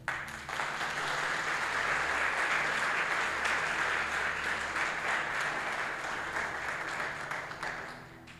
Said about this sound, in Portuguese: Diga assim: Deus é amor. Se você acredita nisso, aplauda Ele.